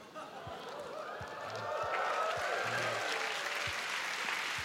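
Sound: audience clapping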